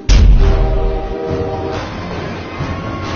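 Train No. 12 comes on at night in the rain with a heavy, deep rumble, and a steady horn tone rings out over it for about a second. The rolling roar then carries on a little quieter, with no voices.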